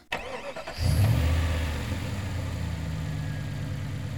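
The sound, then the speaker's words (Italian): A car engine cranks briefly and catches with a loud low roar, then settles into a steady, rumbling idle, at midday on a very hot day in Rome, with no one speaking. “Mettersi in macchina a mezzogiorno a Roma è da folli.”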